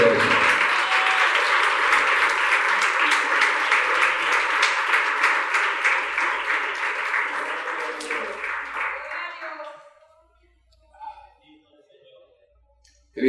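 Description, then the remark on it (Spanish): A church audience breaks into loud, sustained applause for the Lord during a sermon, a dense wash of many clapping hands that holds steady for about nine seconds, then fades quickly, leaving a few faint scattered sounds. “le voy a pedir que por favor le dé un aplauso al Señor”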